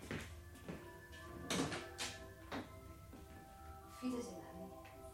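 A door swings and clicks shut into its lock with a few short knocks and rattles spread over several seconds, while a low, steady hum runs underneath.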